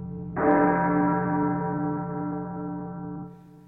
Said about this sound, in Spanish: ¿Estáis escuchando las campanas? Si estáis escuchando las campanas, a correr.